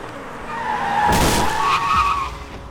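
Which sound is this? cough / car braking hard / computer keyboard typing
car braking hard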